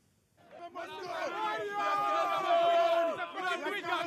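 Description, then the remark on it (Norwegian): A crowd cheers in public in Banjul, Gambia, in January 2017 over a dictator ousted by ballot, many voices shouting and calling out at once in a dense, steady roar that swells after a quiet start and stays loud throughout. “Et folk som jubler i full offentlighet over en diktator som er styrtet ved hjelp av stemmesedler.”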